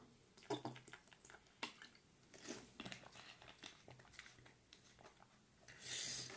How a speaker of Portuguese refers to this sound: Tomar até uma garrafinha d'água aqui. Porque tá foda.